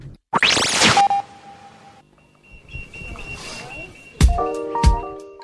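A snippet of a song that blends spoken narration with singing, carried over sustained tones and a couple of resonant, pitch-bending drum strikes near the end.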